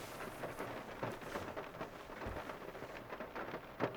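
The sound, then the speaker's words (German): Steady heavy rain pours down in a dense, continuous hiss, with scattered louder splashes and a faint low rumble underneath, no voices present. “Okay, das ist aber, das ist aber ordentlich geregnet bei dir, ne?”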